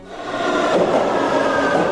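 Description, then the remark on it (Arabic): A short burst of metro train noise used as the jingle of the 'Metro al-Akhbar' news segment, a steady rumbling roar with a faint high whine, loud, with no voices. “مترو الاخبار”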